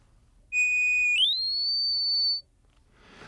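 A steady, pure sine-wave electronic tone holds one pitch, then glides smoothly upward to a higher pitch and holds again before cutting off, loud and clean over a faint low hum.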